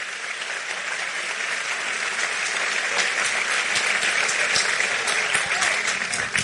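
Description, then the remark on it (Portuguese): A crowd claps steadily and densely, a sustained wash of applause with scattered sharp claps standing out, filling the space at an even, loud level before tapering at the end. “Pode aplaudir a ele.”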